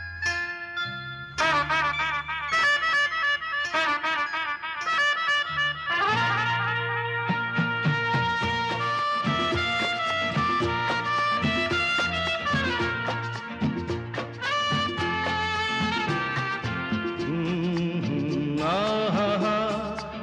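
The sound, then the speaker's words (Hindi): A song plays continuously and fairly loud for the full stretch, with rich melodic lines over a steady low bass and no talking over it. “और आइए अब इस कहानी के बाद सुनते हैं एक प्यारा सा गीत”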